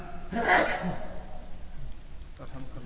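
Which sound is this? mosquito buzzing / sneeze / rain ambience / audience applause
sneeze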